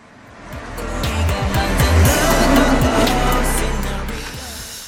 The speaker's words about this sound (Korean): 자, 지금 차를 타고 지나갑니다. 옆 차에서 쿵쾅쿵쾅 음악 소리가 들려요. 속도가 있기 때문에 잠깐 들렸다 멀어지기도 하죠.